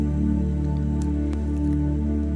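Soft fingertip taps on body acupressure points land a few times at an irregular pace, light, over a steady, low humming drone with no one speaking.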